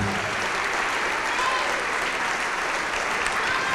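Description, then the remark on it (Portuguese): An audience claps together in steady, sustained applause, a dense wash of many hands at an even loudness from start to finish with no voices standing out. “E vamos aplaudir mais ao nome do Senhor.”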